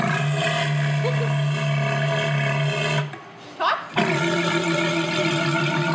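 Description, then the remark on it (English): A walrus at Point Defiance Zoo gives a loud, deep roar with a strong droning tone lasting several seconds, breaks off briefly with a gurgling sound, then resumes roaring. “Roar.”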